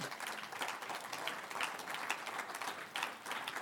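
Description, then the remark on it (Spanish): An audience applauds the young people who are fasting, many hands clapping at once in a dense, continuous patter with small swells, fairly quiet overall and with no voices standing out. “Vamos a dar un aplauso a los jóvenes que están ayunando.”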